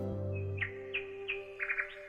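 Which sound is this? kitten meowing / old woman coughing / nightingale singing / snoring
nightingale singing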